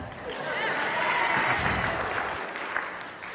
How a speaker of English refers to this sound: Round of applause.